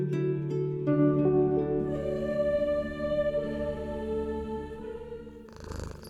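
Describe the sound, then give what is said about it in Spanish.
A cat resting in front of a fire purrs steadily, a low continuous rumbling drone with no talking, ending in a brief burst of rustly noise. “Y ciertamente lo puedo creer mientras contemplo aquel que descansa ronroneando frente al fuego.”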